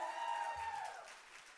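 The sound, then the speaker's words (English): A church audience applauds and cheers, a steady wash of many hands clapping, fairly quiet, with a faint sustained tone ringing over the crowd noise. “Like, wanted to clap and you didn't. Do you want to clap? Go ahead, make some noise.”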